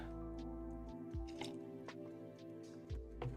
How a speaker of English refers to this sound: Let me take a sip.